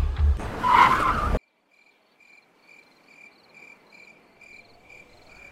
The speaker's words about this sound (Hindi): तभी अचानक बाहर से बहुत तेज आवाज आई गाड़ी के नीचे कुछ आ गया